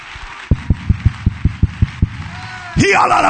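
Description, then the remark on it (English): A standing audience claps in steady unison to give God praise, about eight sharp, evenly spaced claps, before a louder wash of crowd noise and voices swells up at the end. “Stand to your feet and clap your hands and give God the praise.”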